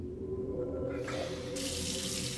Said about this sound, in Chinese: 又比如说， 厕所里突然传来了有人洗澡的声音。